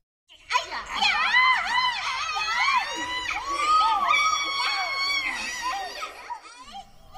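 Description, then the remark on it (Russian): Several children shout and shriek excitedly at once, their high, overlapping voices sustained and loud for several seconds before trailing off near the end. “Они вели себя слишком возбужденно, постоянно кричали, лишая ее самообладания.”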